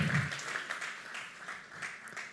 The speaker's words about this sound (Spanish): ¿Qué tal si le da un fuerte aplauso a Cristo y le diga gracias Señor?